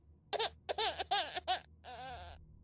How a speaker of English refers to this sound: At that moment, on cue, there's a single, perfect infant's cry from the back seat.